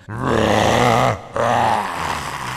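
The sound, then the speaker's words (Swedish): A man's voice bellows a loud, guttural, inhuman roar in two long, strained bursts separated by a brief breath, raw, with no speech around it. “Han vrålar omänskligt gutturalt läte.”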